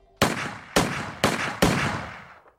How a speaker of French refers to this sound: Dans le noir, quelqu'un l'attend. Quatre coups de feu claquent.